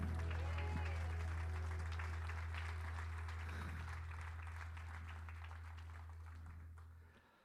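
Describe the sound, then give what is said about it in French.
An audience at a morning church service breaks into sustained applause with scattered cheers and voices, a dense steady clatter of clapping that gradually thins and fades out by the end, over a low constant hum. “par acclamation, il y en a-tu qui sont contents d'être ici ce matin?”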